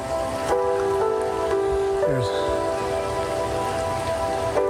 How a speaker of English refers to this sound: there are waterfalls just rushing down that so high like we've never seen anything like this.